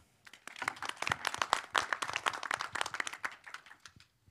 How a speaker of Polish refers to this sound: dodatkowa porcja oklasków.